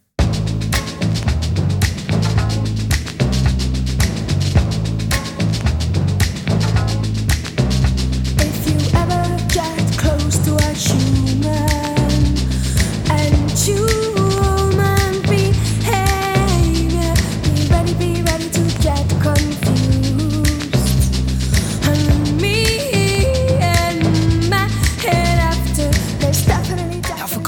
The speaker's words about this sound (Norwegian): i juni 1993 slipper den aller første singelen fra sitt kommende album, så er det virkelig banebrytende pop verden får høre.